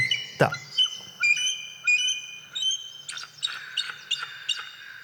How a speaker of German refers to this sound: Adler klingen in Wahrheit so.